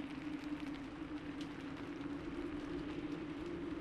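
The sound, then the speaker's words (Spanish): Wind and rain beat steadily against a helmet worn by a person standing in a pasture, a continuous rushing hiss dotted with pattering drops and a low droning hum underneath, with no voices. “El viento y la lluvia pegando en mi casco era lo único que podía escuchar.”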